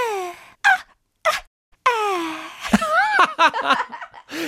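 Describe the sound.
A person imitates the moan tortoises make while mating, with strained, drawn-out groans in several bursts separated by short pauses, ending in quicker, wavering moaning sounds.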